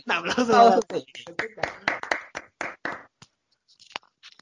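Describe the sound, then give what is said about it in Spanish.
A short voice gives way to a brief round of audience clapping: a dozen or so sharp, uneven claps that thin out and trail off into near silence. “Un aplauso para.”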